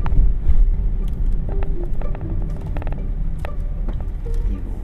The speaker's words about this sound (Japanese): 車を止めました